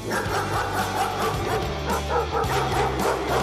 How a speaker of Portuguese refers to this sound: deteve-se diante de uma porta fechada, de pelo eriçado, corpo em posição de ataque, a ladrar furiosamente.